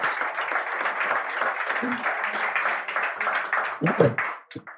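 An audience applauds a quiz winner who answered three questions correctly, in a dense, steady wash of clapping that holds for several seconds, then thins into a few scattered claps, with some voices mixed in near the end.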